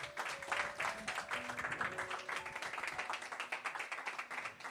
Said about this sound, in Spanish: Si tú lo crees, dale un aplauso fuerte en esta tarde.